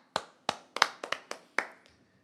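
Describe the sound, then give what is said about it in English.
A short run of about six or seven crisp hand claps at a brisk, slightly uneven pace, fairly loud, trailing off with a faint final clap. No talking. “So let's first applaud you there”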